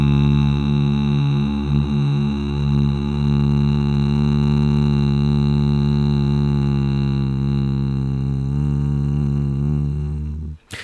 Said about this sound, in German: Achtung, wenn Sie jetzt äh, einen hohen Piepton hören, dann ist Ihre App korrekt eingestellt. Wir machen das mal so. Hier ist der Testton. Achtung.